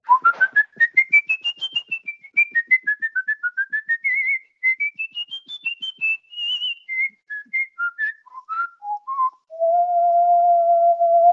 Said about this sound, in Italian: Ma spiegaci prima di tutto che cos'è questo fischio musicale.